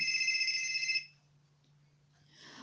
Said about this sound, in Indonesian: Tiba-tiba telepon berdering.